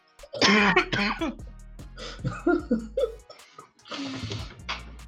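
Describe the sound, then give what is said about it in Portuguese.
Several harsh coughs and throat-clearing bursts come up loud, starting in a quick pair, then scattered rougher hacks, and ending with one more strained cough. “Começou puto e terminou tossindo de rico.”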